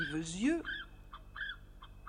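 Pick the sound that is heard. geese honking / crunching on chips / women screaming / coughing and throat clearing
geese honking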